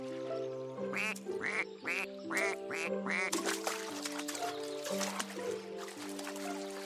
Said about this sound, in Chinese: 你看，鸭子们太吵了。 是啊，一直呱呱呱，我们怎么睡得着啊？